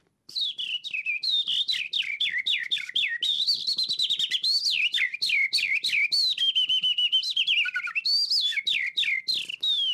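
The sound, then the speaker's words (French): A person whistles a loud imitation of the song of a skylark: an unbroken stream of rapid, high-pitched trills, chirps and warbling runs that pours on for about nine seconds. “Donc je vais faire l'alouette des champs.”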